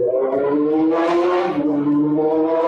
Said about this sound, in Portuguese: Inclusive, o Soldado Invernal acabou de passar aí em plano de fundo, né? Em algum lugar, mas muito bom. Tá ouvindo a moto?